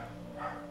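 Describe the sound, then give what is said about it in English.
A dog barks faintly in the background, a short, muffled burst with no one talking over it. “I'm sorry if you can hear I'm sorry if you can hear my dog barking in the background”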